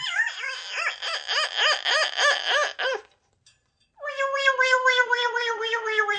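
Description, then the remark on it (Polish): A parrot perched on a running man's back in a park gives a shrill, warbling screech in rapid wavering pulses for about three seconds, then after a brief pause returns as a long, high, quivering cry. It is loud, with no talking. “Kiedy pan doktor biegł przez park, papuga siadła mu na plecach i zrobiła tak.”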